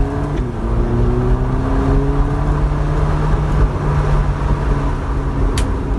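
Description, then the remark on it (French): An entry-level Ferrari sports car engine revs hard and accelerates, its rising growl loud, holding a steady roar for several seconds with no voices present. “Pour une entrée de gamme, il sonne très bien.”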